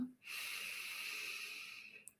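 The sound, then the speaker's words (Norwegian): A long, steady, deep inhale drawn through the nose during a guided breathing exercise, airy, lasting about two seconds before tapering off into a faint click. “Så inviterer jeg deg til å fordype pusten litt. Puste godt inn med nesa”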